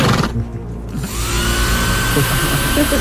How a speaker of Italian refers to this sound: Un rumore sordo di asciugacapelli e lacca ecco. anni 70 per ciuffi alla Elvis si fa prepotente nella stanza adiacente